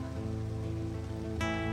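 Steady rain falls in a continuous, even patter, blended with a sustained low tonal hum; a brighter swell rises near the end. No one speaks.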